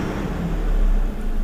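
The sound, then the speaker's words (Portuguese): A Ford Pinto car engine hums steadily, a low continuous rumble that swells slightly as the car approaches, with no voices present. “Olha o pinto aí. Olha o pinto vindo.”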